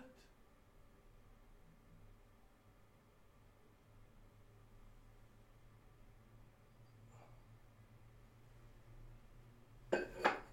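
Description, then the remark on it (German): A low, steady hum, then near the end a glass is put down over an insect on a hard surface with a quick double clink. “Okay, ich hab, ich hab ein Glas über sie gemacht, aber was mache ich jetzt, Dude?”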